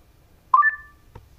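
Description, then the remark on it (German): A Bluetooth speaker's power-on chime as it is switched on for pairing with a mobile phone: a quick rising pair of clear electronic tones that ring out briefly and fade, followed by a soft click. “Das war der Ton.”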